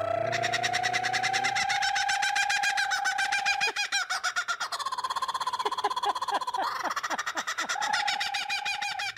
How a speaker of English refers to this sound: And chuckling is sure to scare anyone who isn't ready to be overwhelmed by the sound of the bird's natural voice.